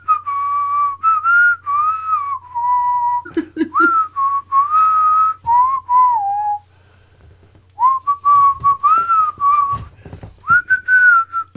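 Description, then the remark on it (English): A person whistles a slow, steady rock song melody, with sustained bright notes and brief pauses between phrases, followed by a short clattering burst of handling noise near the end. “I'm whistling, I'm whistling ….”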